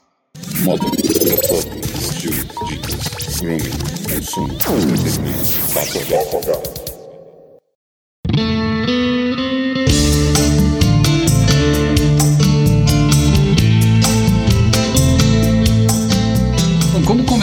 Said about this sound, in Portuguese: nós voltamos logo após a nossa vinheta.